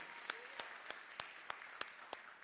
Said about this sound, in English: Come on, just give the Lord a hand clap right there.